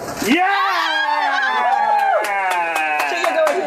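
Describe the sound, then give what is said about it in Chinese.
A group of blue-camp (Kuomintang) legislators in Taiwan's Legislative Yuan cheers loudly after Chiang Wan-an wins a committee convener seat in a lottery draw: several voices break into sustained, overlapping shouts of joy that hold for a few seconds, with scattered sharp claps mixed in. “手气佳的蒋万安顺利抽中，抢下一席招委，在场的蓝委大声欢呼。”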